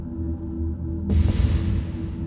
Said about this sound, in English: Here, it was dank, dark, and that noise. A humming, throbbing sound like a sickly heartbeat hiding behind the whir of a great machine.